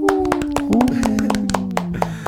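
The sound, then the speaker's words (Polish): A burst of quick, uneven hand claps, sharp and fairly loud, runs for about two seconds after the announcement of a Fan of the Year 2022 award, while a voice holds a long, slightly falling cheer-like tone underneath. “E, brawo, tak.”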